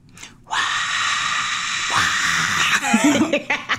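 A crowd roar sound effect swells in after a brief quiet start, a loud, sustained wash of cheering and screaming voices that holds steady, with scattered shouts and whoops rising near the end.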